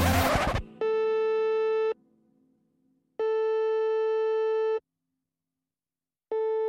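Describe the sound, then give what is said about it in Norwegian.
A telephone ringing tone sounds in steady, evenly spaced electronic beeps, each about a second long with pauses between, after a brief burst of noise at the start, as someone places a call to a therapist. No one speaks. “Jeg bør ta en telefon.”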